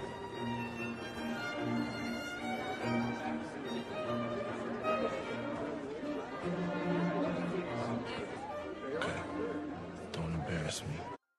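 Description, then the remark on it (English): Steady crowd chatter at a party, many overlapping voices merging into a dense, continuous murmur that holds at an even, fairly loud level throughout. “While you do that, we'll mingle amongst the crowd.”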